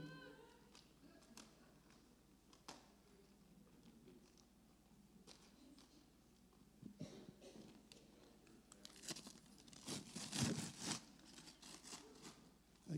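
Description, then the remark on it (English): Wrapping paper being torn open on a gift, with scattered rips and crinkles that grow busier and louder toward the end in a flurry of tearing. “keep tearing up my fancy wrapping paper.”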